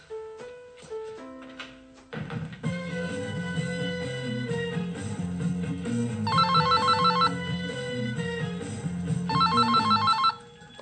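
A telephone rings in two trilling bursts, fairly loud, layered over a steady melodic tune; no one speaks.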